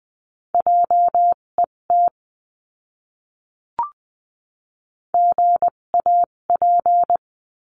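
Morse code tones spelling a word at 14–20 words per minute in a practice lesson: a steady mid-pitched beep keyed in short and long pulses, two quick groups split by a pause with a single soft click between them, no voices.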